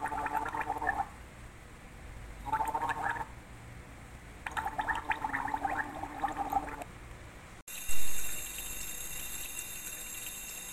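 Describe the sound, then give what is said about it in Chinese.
Three bursts of bubbly, throaty gargling with mouthwash, the last one longest, then an abrupt cut to a loud rush of watery noise that quickly fades. “已经要准备睡觉啦，他已经刷好了牙，漱好口，还洗好脸。”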